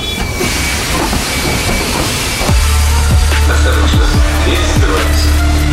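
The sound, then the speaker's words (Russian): A metro train rumbles loudly, with a broad hissing roar and a low drone that rises partway through, joined by rhythmic wheel clatter and squealing pitch sweeps. Nobody speaks. It serves as the intro effect of the Krasnoyarsk programme "Metro". “Следующая станция метро.”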